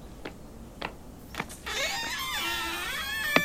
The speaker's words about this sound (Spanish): Eh, silencio, que van a abrir la puerta.